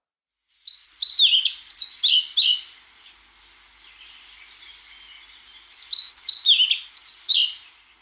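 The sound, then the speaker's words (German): A black-and-white songbird sings two close, clear bursts of quick, high, descending notes, separated by a few seconds of quiet, with no voices present. “Ist ein schwarz-weißer Vogel, sehr hübsch übrigens. Ich spiele ihn ab.”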